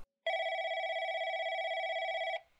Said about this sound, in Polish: Tydzień później, 24 sierpnia, około godziny 22, w domu rodziny Kembrowskich rozlega się dźwięk telefonu.